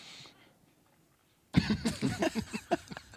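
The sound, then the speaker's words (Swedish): A loud burst of coughing right into the microphone after a brief quiet pause, a quick run of several rough coughs. “Jag kommer hosta rakt i den här micken.”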